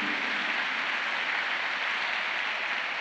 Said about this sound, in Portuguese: Aplauda Jesus por isso, creia nisso, tome posse dessa verdade.